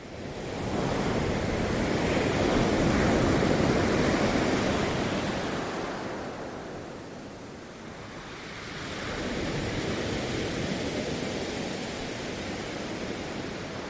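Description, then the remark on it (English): Ocean surf washing onto a beach, a broad roaring hiss that swells, eases around the middle, then builds again with another incoming wave. No voices. “We leave the beach behind.”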